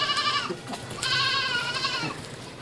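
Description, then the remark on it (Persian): Goats that eat the garden's climbing plants bleat in a string of loud, wavering cries, two long calls overlapping with shorter ones, with no talking. “این بوزا نمیذارن اینا بیا بالا همین فردا شو میخورن”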